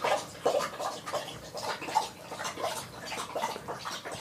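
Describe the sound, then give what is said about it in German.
A pet laps water in a steady, quick rhythm of wet splashy slurps, fairly quiet, with no voices. “die trinkt gerade.”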